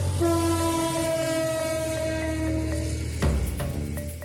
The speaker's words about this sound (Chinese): 那如果你只听到又长又慢又缓的汽笛一声，那是在通知火车正在接近当中哦。